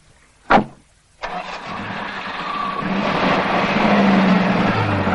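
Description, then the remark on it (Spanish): A car door thuds shut, then a red sports car's engine catches and roars, its rumble building steadily louder as a man with a moustache drives off with a young woman and keeps accelerating, as rain begins to fall. “El hombre del bigote se sube a su deportivo rojo y se marcha con la joven.”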